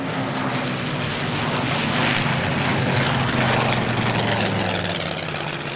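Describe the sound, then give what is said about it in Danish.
A British propeller plane drones steadily overhead across the Danish island archipelago on a summer day in 1940, pursued by a German fighter, its engine a loud, continuous roar with a low humming tone that swells slightly as it passes by, with no voices. “Et af de britiske fly kom en sommerdag i 1940 strygende hen over øhavet, skarpt forfulgt af en tysk jæger.”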